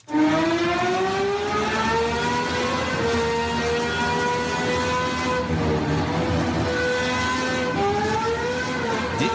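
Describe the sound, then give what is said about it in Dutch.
The V12 engine of a debuting Aston Martin hypercar, a two-seat street car developed with Red Bull with 1160 hp, revs loudly, a sustained, harmonically rich roar whose pitch swells and dips several times over about nine seconds, with no voices. “Dan het debuut van de Aston Martin Vulcari. Ja, wat een geluid.”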